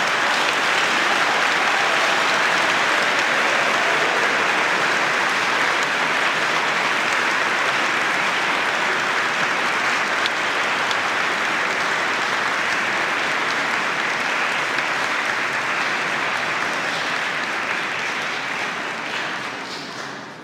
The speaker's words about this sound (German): Vielleicht auch einmal einen großen Applaus für dieses wunderbare Krippenspiel.